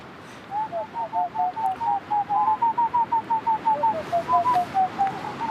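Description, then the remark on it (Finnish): A person whistles an imitation of a boreal owl's call, a fast, steady series of about twenty-five short hollow notes that rise slightly then fall, clear over faint wind-like background noise, from Salonsaari in Asikkala, Finland. “Tämä on ihan hieno ääni helmipöllä tällä kertaa vihelleltynä”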